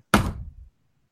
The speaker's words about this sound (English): So why'd you bang your table like that? Like I'm knocking on wood to make sure that.